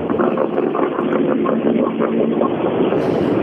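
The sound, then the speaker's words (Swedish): Race car engines rumble steadily and loudly throughout as drivers head out to compete for championship medals, a dense, continuous droning roar with slight fluctuations, and no voices are heard. “jag hör att det börjar brumma.”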